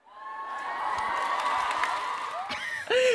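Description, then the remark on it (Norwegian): A canned crowd cheer and applause plays for about three seconds, a loud, steady wash of clapping and shouting with high whistles and whoops rising near the end, and no talking over it. “Jeg la inn en liten applaus der, jeg.”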